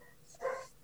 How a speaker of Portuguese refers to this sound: Desculpa pelo cachorro da vizinha.